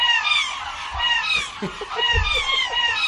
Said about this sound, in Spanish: Gaviota reidora, Larus ridibundus.